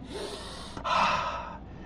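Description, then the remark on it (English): A deep, audible breath drawn in, a rushing airy inhale that briefly catches, then swells louder before fading out. No talking. “Are you breathing this morning?”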